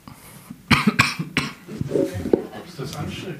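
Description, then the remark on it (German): Three sharp coughs burst out in quick succession, followed by softer throaty sounds and a bit of muffled vocal noise. “Ich huste jetzt nicht es nicht noch schlimmer wird.”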